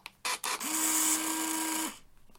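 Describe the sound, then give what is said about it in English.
An Impossible Project I1 instant camera's motor runs with its battery nearly flat: two quick mechanical clacks, then a steady, buzzing whir with a low hum that holds evenly for over a second before cutting off. No one speaks. “So you can hear my camera's battery is nearly flat and I'm going to charge it up.”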